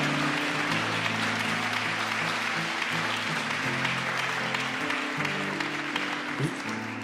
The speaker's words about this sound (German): Ich können wir Jesus und allen, die mutig ihre Hand gegeben haben, einmal kurz einen Applaus geben.